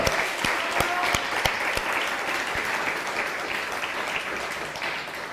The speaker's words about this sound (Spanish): Un fuerte aplauso, Japón. Fuerte aplauso, Japón.